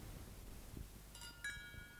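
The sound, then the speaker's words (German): Two bright glass clinks ring out close together in a toast, each leaving a thin, lingering tone over a soft, low background murmur. “Zum Wohl, Herr Direktor. Zum Wohl, Kinder. Prost, Mami. Prost, Papi.”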